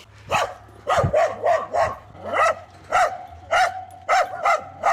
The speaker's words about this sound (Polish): Mhm, tutaj mój pies się wydziera.